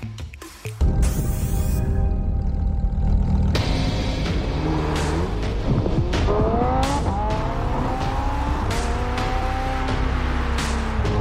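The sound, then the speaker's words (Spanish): The engine of a Lamborghini Huracán Evo sports car roars loudly and steadily, revving up and down, while tires squeal in rising and falling curved whines over the engine's low rumble. No one speaks. “Los amantes de los autos saben lo importante que es la experiencia de manejo de un auto como los Lamborghini.”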